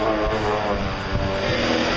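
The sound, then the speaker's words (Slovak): A motorized surfboard's engine runs steadily, a loud, buzzing drone with a rough, lawnmower-like rasp that holds an even pitch and level throughout, with no voices. “Na, na začiatku to znelo ako kosačka.”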